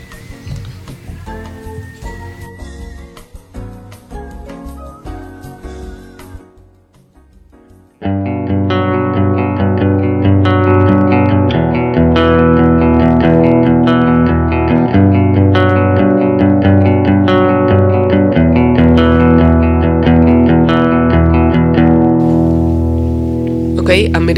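Electric guitar playing, a demo of an American Vintage 2 Stratocaster: a lighter picked passage gives way around eight seconds to loud, sustained chords with a thick, slightly driven tone that rings steadily to the end.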